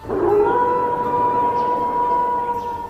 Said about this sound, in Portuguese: Tu escuta ao longe um uivo.